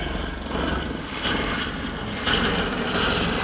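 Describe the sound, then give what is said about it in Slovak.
A helicopter passes overhead a campsite, for the second time, its steady rotor chop and engine drone filling the scene, loud and continuous with a slight swell. “A helikoptera tu prelietáva už druhýkrát, možno sa niečo stalo.”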